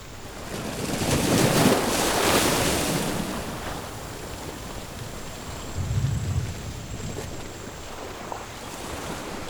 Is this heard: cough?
no